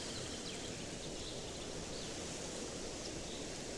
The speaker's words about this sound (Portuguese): Estamos agora em uma trilha em meio à floresta. O vento sopra nas copas de árvores muito altas. São pinheiros.